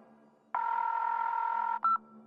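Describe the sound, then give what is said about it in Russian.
A long, steady electronic phone voicemail signal tone sounds for over a second after the recorded message, then stops and a short, higher second beep follows, with a faint low hum underneath. “Оставьте ваше сообщение после сигнала.”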